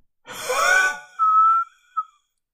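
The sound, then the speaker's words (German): A person imitates expiratory stridor, the wheezing exhale heard when the lower airways are narrowed: a breathy rush of air turns into a thin, high whistling tone, then a brief second whistle, fairly loud, with no talking. “Okay, und der expiratorische Stridor, der entsteht dann, wenn die unteren Atemwege verengt sind.”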